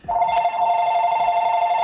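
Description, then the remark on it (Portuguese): A phone rings with a steady electronic tone, a bright sustained ringing that carries on for the full two seconds, fairly loud, with no voices over it. “isso aqui é o meu telefone que tá, tá tocando.”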